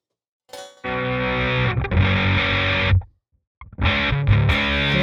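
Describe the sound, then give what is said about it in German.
An electric guitar played through a Clean Master V2 clean amp simulation rings out in sustained, full chords, with a brief pause before a second strummed passage. No one speaks. “Ja, wollen wir denn mal einen anderen Amp versuchen hier? Irgendwie? Also was, äh, was könnte man denn mal hier, einen anderen cleanen Amp?”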